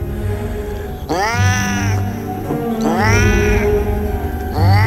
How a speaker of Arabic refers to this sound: لما في مرة كنت نازل آه، على السلم و قدام باب العمارة بالظبط عديت وببص ورايا ابتديت اسمع اصوات غريبة جاية من مجموعة من قطط بس اصوات هي مش اصوات قطط هي مريبة بطريقة مش حقيقية